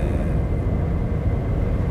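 car interior road noise

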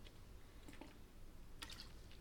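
drinking sparkling water

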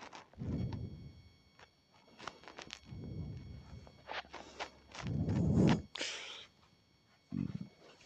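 burp

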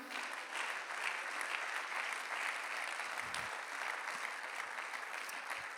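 audience clapping hands

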